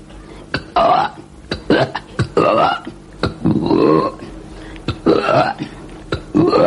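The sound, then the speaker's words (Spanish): A person deliberately burps while touching someone's back, a series of loud burps repeating in quick succession, each a short guttural croak, about six or seven in under seven seconds with brief gaps between them. “porque ella dice, no, no, son ruidos de garganta, y luego cuando está eh, haciendo una demostración, dice, hago estos eruptos.”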